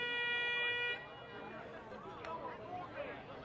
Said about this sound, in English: Air horns in action tonight.